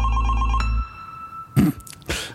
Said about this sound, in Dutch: Um, is wel heel veel bas aan het begin. Heel eh, elektronisch vond ik het ook. ja. ja. Ja, dat, is het geluid van een telefoon die trilt op je bureau.